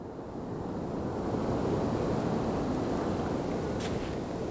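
Steady roar of wind mixed with crashing sea surf at the rugged, windswept cape of La Hague, where a high plateau drops steeply to the English Channel; a dense continuous wash of noise that swells slightly and holds loud throughout, with no voices present.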